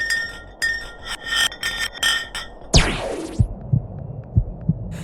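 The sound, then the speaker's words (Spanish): An ice block, dropped to the bottom of a deep borehole drilled in ice, falls with a sharp, ringing pitch that sweeps rapidly from high to low, trailed by a series of hollow, echoing knocks and thuds as it descends. “Los tonos cambiaban a lo largo del rápido descenso del bloque de hielo, desde un tono alto hasta un sonido bajo”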